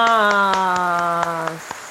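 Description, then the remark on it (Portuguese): An applause sound effect added by the editor: steady rhythmic clapping, about four claps a second, over a sustained musical chord that fades out partway through, leaving the claps to continue alone. “Gente, eu fico querendo bater palmas junto com o editor.”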